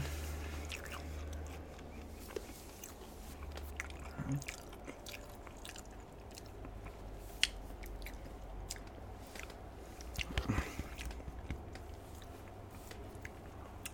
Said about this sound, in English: I'm just going to like munch on the rest of this half eaten nugget and then I'm going to like talk about the whole story I want to talk about, but let this noise be the transition noise, okay?